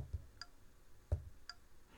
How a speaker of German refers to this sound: Der Sound kommt, wenn man ein Element anspringt, das man aktivieren kann, zum Beispiel einen Schalter oder einen Link.